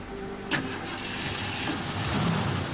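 A car engine cranks with a sharp burst and catches without trouble, then settles into a steady idling rumble that continues to the end. No one speaks.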